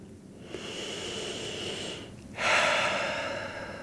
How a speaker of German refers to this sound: Und deswegen würde ich dich jetzt einfach mal bitten, deine Hand wirklich aufs Herz zu legen, dich mit dir zu verbinden und für einen Moment mal in dich zu gehen. Einen Moment in dich zu gehen und tief zu atmen.